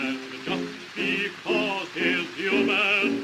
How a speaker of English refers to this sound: This is the Song of the United Front in English.